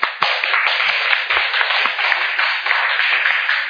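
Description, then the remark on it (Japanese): A crowd claps together for the Lord after a prayer, sustained applause, dense and steady throughout, with no voices rising above the crowded patter of hands. “あれでは主を感謝しますさあ主に拍手です”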